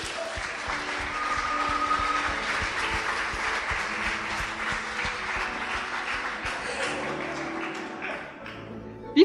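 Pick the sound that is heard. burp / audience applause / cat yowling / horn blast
audience applause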